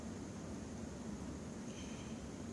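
A steady, dense hiss of heavy rain pours continuously, fairly quiet, with no voices and no break in the wash of sound.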